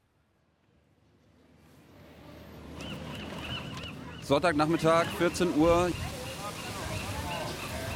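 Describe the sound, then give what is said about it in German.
Seagulls squabble over a piece of bread someone threw, in a loud burst of harsh, overlapping squawks lasting a couple of seconds, set against a steady outdoor hubbub at a fountain surrounded by stalls in San Francisco, with a brief spoken voice just before. “Hier prügeln sich gerade Möwen um ein Stück Brot, das jemand hingeworfen hat.”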